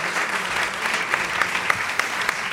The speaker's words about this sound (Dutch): Een groot applaus voor haar.